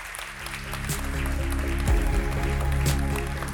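Steady applause from an audience welcoming a guest onto the stage, a dense patter of many hands clapping at moderate loudness that swells slightly and holds for a few seconds, with a low hum running underneath.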